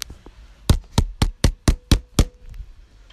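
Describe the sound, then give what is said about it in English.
A quick, steady run of seven firm knocks on a door, evenly spaced, with no voices, followed by a brief quiet pause. “More knocks.”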